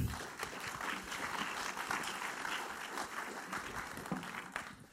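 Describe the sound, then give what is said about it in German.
A crowd gives a closing applause, clapping steadily for several seconds, a dense wash of many hands clapping at once with no pauses, fairly loud and evenly sustained throughout. “Für unseren Schlussapplaus geben.”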